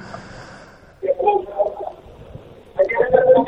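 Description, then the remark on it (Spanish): A faint hum gives way to bursts of garbled, crackling phone-line noise, narrow and tinny, cutting in and out in two loud stretches as a phone call to a colleague in a dressing room fails to connect. “detrás del teléfono y ese ruido que ustedes escuchan es del, del sonido telefónico.”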